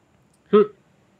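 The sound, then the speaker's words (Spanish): A cat lets out one short, clear, fairly loud meow in an otherwise quiet moment with no talking around it. “Oye, el gatito ahí.”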